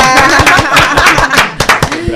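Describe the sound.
The audience of the programme De paso y repaso applauds steadily and loudly to welcome a guest, with dense, irregular clapping throughout, while voices cheer over it.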